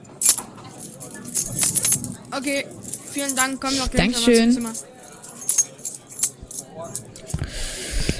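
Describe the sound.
Keys to room 213 jingle and clink in short bright bursts as they are handed over, the metallic rattling mixed with people talking.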